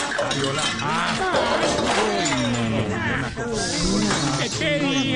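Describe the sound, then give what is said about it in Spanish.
Christmas glasses and dishes shatter and clink in a loud, clattering jumble lasting several seconds, with excited voices shouting and talking over the crash throughout. “¡Ay, los vasos navideños, cuidado que. ¡Ay!”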